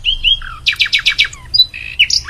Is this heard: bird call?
yes